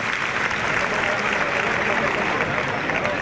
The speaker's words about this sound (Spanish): Bueno, pues Fortes que recibe una ovación en el segundo toro